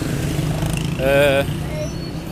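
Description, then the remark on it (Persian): A voice imitates a revving motor engine in a short, buzzy burst of about half a second, loud, set against a low steady background hum. “اسخایی میکنم موتور تو حلقمه”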